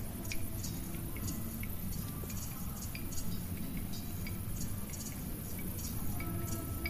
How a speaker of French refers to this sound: Ça se mélange au son de la nature, ça se mélange au gris-gris des grillons, et au mâchouillement des chèvres qui viennent de temps en temps lécher un coin de notre tente.